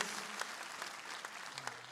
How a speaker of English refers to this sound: Yeah, go ahead and clap for that. Just, all right, there, there we go.